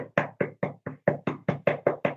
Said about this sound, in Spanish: cuando alguien les toca la puerta.